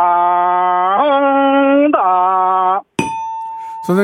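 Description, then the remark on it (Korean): A voice imitates a racing motorcycle, the first-place bike in the race, with a loud, buzzy, sustained drone that jumps up in pitch twice like gear changes, then cuts off before a short, bright ringing tone. “오, 토바이 경주하는 소리인데요.”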